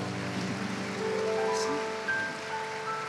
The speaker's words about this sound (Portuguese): Se você recebeu, vamos dar um lindo aplauso.